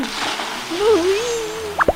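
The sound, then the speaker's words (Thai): A drawn-out wavering vocal tone gives way to a quick double plop, like a small body jumping into the water of a marsh to swim to the other side, right at the very end. “ช่างเถอะเราจะไปผจญภัยแล้วก็ว่ายน้ำไปอีกฝั่งบึง”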